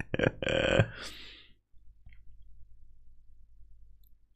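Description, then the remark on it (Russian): A loud, buzzy fart noise blurts out for nearly a second, then trails off into a fading hiss, leaving only a faint low rumble in the background. “Пукашки, что ли, научился в телефон на стриме париться?”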